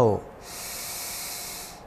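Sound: deep inhale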